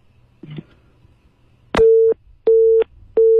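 A steady telephone call tone, calling a 4S car dealership, repeats in three loud, even beeps separated by short gaps, preceded by a brief click and faint low hum.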